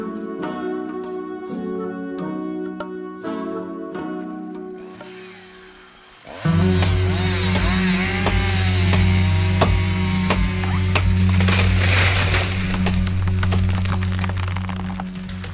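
A few sharp wooden knocks and tones ring out, then a chainsaw roars in loudly and keeps buzzing steadily, its engine pitch wavering as it cuts a tree, with no talking.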